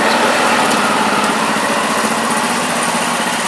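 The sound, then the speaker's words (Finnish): Mopeds ridden by young riders buzz past, a small, high-pitched engine droning loudly and steadily for a few seconds with a raspy, continuous whine and no voices. “Mopopoja.”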